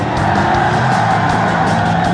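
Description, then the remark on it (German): A racing car roars out of a curve in the lead, its tires skidding, scraping and digging deep tracks into sandy ground as sand and dust swirl up, in a loud, continuous rush of noise with a steady engine drone underneath and no voices. “In einem Affenzahn schießt Bo als erster aus der Kurve. Seine Reifen graben tiefe Spuren in den Boden.”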